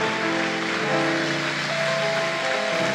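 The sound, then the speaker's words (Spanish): An audience applauds as an offering to the Lord in a dense, steady wash of clapping that holds for about three seconds, with sustained held musical notes droning underneath. No one speaks. “Y todos los que lo reciben, démosle una ofrenda de palmas fuerte al Señor.”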